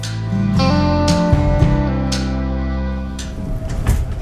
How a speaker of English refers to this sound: So here we are on the train in our salubrious seat next to the toilet.